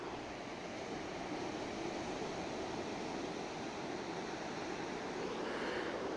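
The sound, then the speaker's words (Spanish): A steady roar of surf from the Cantabrian Sea at the shore in Gijón, Asturias, northern Spain, broad and continuous with no distinct individual breakers, heard alone at a moderate level with no voices. “A ver si escucháis el sonido del mar.”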